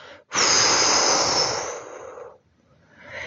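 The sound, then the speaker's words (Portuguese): A single slow, deep breath drawn in and then released with an audible airy rush, followed by a brief pause and the start of another breath. “Você respira um pouco e solta.”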